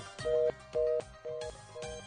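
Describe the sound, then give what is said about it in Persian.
A telephone busy tone: short, steady beeps pulsing on and off in an even, quick rhythm, about four beeps in two seconds, clear with no voices. “یه بار دیگه دار بوق اشغال پخش میکنه”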